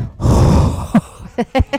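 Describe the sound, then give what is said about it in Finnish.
A voice imitates a dragon's heavy breathing: one long, loud, rasping exhale, then a few short, gruff grunting puffs in quick succession, exaggerated. “Ja sitten kuulkaa pienet puhkiaiset, puhkujaiset, lohikärmet. Ihan saa normaalisti hengittää, mutta ei välttämättä tälleen.”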